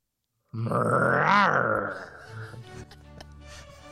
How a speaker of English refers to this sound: That's a that's a tiger growling in the uh, the that actual. was a tiger from outside.